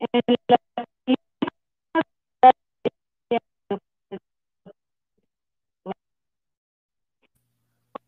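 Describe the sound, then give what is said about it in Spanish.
A dog barks in a quick run of short, sharp yaps that gradually slow and thin out into a few scattered barks, with no one talking. “aún así se, se traba y luego este canijo se pone a ladrar ahorita.”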